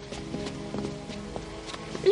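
A quick series of hurried footsteps thumps along at an uneven pace, moderately loud, as someone runs out of the dining room across a hard floor.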